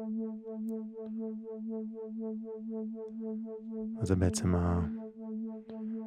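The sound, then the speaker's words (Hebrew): A steady low binaural beat tone, played to accompany a guided meditation, hums continuously with a soft, regular pulsing throughout, while a man briefly speaks over it near the end. “וזהו, והאוגן שלנו יהיו בעצם הטונים הבינורליים, אני אשמיע לכם אותם.”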